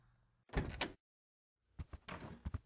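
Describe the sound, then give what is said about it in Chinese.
A bedroom door being opened: a short burst of rattling clatter, a second of silence, then a series of sharper knocks and rattles. It is fairly loud, with no voices. “那就开门呀，磨磨唧唧的。”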